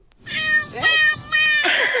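A cat named Teófilo meows loudly, three drawn-out, insistent cries in a row with brief pauses between them, harmonic and wavering in pitch.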